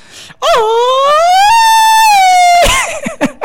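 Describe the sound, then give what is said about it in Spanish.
A person imitates an ambulance siren with one loud, sustained vocal wail that rises in pitch and holds steady for about two seconds, followed by brief bursts of voices. “Una ambulancia.”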